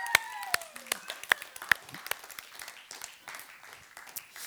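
An audience applauds a person at the back who is working and has been asked to stand up: a patter of many hands with sharp, loud individual claps standing out early, then settling into a steady, softer clatter, with faint voices underneath.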